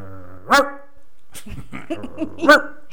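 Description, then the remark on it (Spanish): A person imitates a Salvadoran ('guanaco') dog's bark twice, two loud, voiced yelps about two seconds apart, with quieter vocal sounds and murmuring in between. “No, un chicho guanaco así ladra.”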